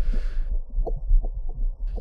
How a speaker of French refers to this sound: chercheur euh, suisse qui s'appelle euh, Marcus Meder, qui a développé un microphone assez particulier hein, qui peut se planter à travers l'écorce d'un arbre et qui peut justement enregistrer les vibrations et le vrombissement intérieur d'un arbre.